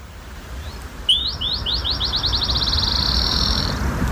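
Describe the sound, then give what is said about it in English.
A black-chinned sparrow sings nearby, about halfway up Mount Lemmon next to Tucson in southeast Arizona: a short, high, sweet song of rising notes that speed up into a rapid trill, like a bouncing ball, over quiet outdoor ambience. “And there's a black chinned sparrow calling just just near me.”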